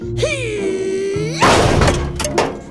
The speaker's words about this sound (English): …, you've got to stop kicking these doors down. What's the matter, Guy Raz? Can't you handle it? No, …, you're the one that can't handle it. I don't think I've seen you use a door handle the whole time I've known you.